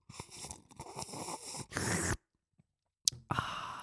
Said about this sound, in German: Und wir mal zusammen schlürfen. 3, 2, 1.